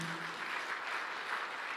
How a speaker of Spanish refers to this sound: Vamos, del otro aplauso fuerte.